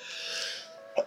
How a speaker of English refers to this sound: Bless you.